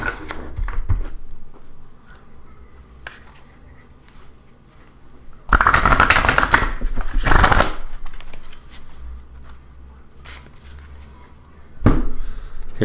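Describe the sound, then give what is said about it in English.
A deck of playing cards is shuffled: a loud burst of riffling lasting about two seconds, with a few lighter card flicks and taps before and after, no voices. “Give it a shuffle.”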